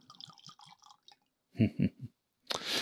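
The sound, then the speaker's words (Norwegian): Double cask linje aquavit is poured into a glass: soft trickling, then three heavy glugs from the bottle and a steady, bright splashing stream at the end. No one speaks. “Skal jeg skjenke litt, kanskje?”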